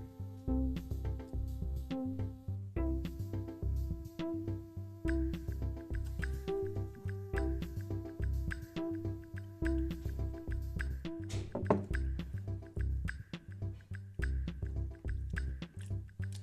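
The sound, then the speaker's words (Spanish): Water being poured and sipped, with soft liquid trickles and small gulps, set against a steady, rhythmic music bed that plays throughout. No one speaks. “un segundo de nuevo, tomaré un poco más de agua.”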